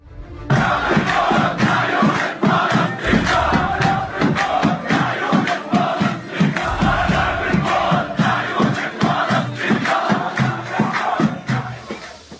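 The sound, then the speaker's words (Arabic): A large crowd of young Jerusalem protesters chants loudly at Damascus Gate (Bab al-Amud) in the old city of Jerusalem while facing Israeli police during Ramadan, in a steady, rhythmic cadence, many voices shouting together in repeated bursts that fill the space for the whole stretch, unbroken. “إنهم الشباب المقدسيون وقد اهتزت لهتافاتهم جدران باب العمود القديمة أحد أبواب حرم المسجد الأقصى وهم يواجهون بصدور عارية شرطة الاحتلال الإسرائيلي التي تحاول بالقوة والعنف إخلاء منطقة باب العمود وما حولها منذ بداية شهر رمضان”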